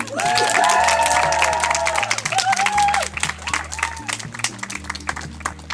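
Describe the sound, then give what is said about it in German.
An audience applauds a team member, the art and aesthetics expert, steadily for several seconds, a dense crackle of many hands clapping, with a few whoops rising over it early on and a low, sustained musical tone running beneath. “Einen großen Applaus auch für Cora Rieken, unsere Kunst- und Ästhetikexpertin.”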